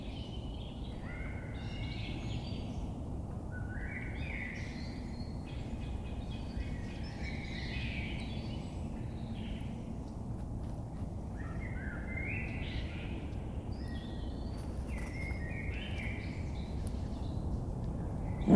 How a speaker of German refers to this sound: Durch die Nacht geht es bis zum Morgen, wenn die Vögel erwachen.